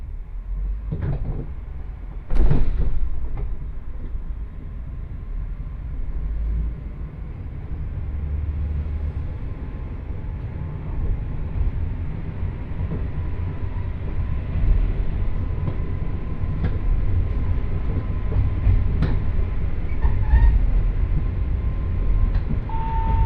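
A one-man local train bound for 城花 rolls steadily along the rails with a continuous low rumble and rattling, punctuated by a few sharp clanks and thumps early on and occasional faint squeals.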